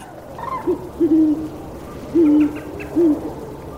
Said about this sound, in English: The great horned owl sounds a patina of deep, strong notes which carry through the canopy to where his mate guards their nest.